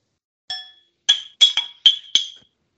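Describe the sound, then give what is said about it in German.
Glasses clink together in a toast, five or six bright, ringing taps in quick succession with short decays, fairly loud, with no talking. “Feiern jetzt ja auch noch ein kleines bisschen weiter und stoßen jetzt irgendwie, glaube ich, auch gleich nochmal kurz an hier.”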